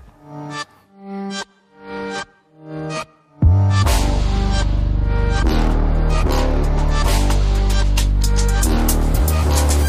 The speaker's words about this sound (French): Continuons à le découvrir en musique avec un nouvel extrait.